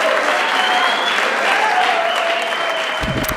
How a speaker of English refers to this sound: And uh, we want to thank the studio audience one last time. Give yourself one more round of applause.